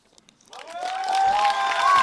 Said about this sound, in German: Auf jeden Fall hat er sich auch einen Applaus verdient, bis er vorne beim Mikro steht.